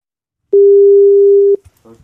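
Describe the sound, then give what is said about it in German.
A single steady telephone ringing tone sounds for about a second, loud and clear, before a voice starts to speak as the call connects. “Ja, rufen wir den doch an.”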